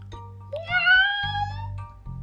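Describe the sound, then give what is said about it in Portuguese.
A single drawn-out cat meow, rising slightly in pitch and lasting about a second, heard clearly over a low, steady background hum. “Obrigada! Irei sim, se você convidar o gato. Gato, gato, por favor, venha à minha festa.”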